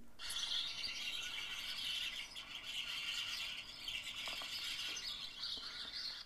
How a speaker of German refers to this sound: Reges Gezwitscher. Waren das die faulen Schwalben, die noch zu Hause waren? Auch mit diversen Spatzen, denke ich. Aber es war so laut und das war nur so ein kleines Stück Hecke.